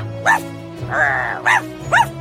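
A dog barks three times in short, bright bursts, with a sustained whining yelp in between, clear over a low background hum.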